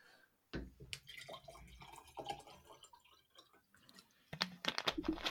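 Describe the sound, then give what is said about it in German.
Still water is poured into a glass, a gurgling, splashing trickle with clinks and drips, lasting a few seconds with a brief pause and a louder burst toward the end. “Muss mal eben meinen Prost. Apfelkorn auffüllen.”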